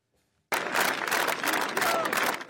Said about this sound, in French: Des applaudissements et des remerciements. Derrière les banderoles, en tête de cortège, Vincent Jeanbrun mène la marche.